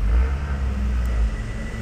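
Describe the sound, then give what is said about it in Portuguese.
Steady low rumble of passing road traffic at a bus stop, a car engine droning with a faint hiss of the street behind it, continuous throughout with no voices. “Agora tô aqui esperando a merda do ônibus, que naturalmente demora pra caralho.”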